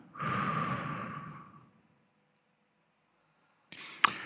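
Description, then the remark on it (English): A long, deep breath out, breathy, lasting over a second and trailing off into silence, followed by a short rustle with a sharp click. “And now a deep breath out.”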